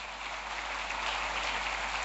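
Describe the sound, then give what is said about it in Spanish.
Sustained audience applause, a dense, steady wash of many hands clapping together at an even level for about two seconds, with no voices on top. “Si lo crees, dale un fuerte aplauso y diga, yo lo creo, vamos.”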